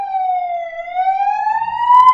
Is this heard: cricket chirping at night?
no